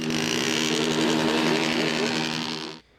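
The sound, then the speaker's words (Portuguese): A large number of motorcycles roar loudly and continuously as they follow the body of MC Kevin, taken from the samba school at nine in the morning, a dense buzzing drone with wavering pitch, cutting off abruptly near the end. No voices are heard. “Às nove da manhã, o corpo foi levado da escola de samba e seguido por um grande número de motocicletas.”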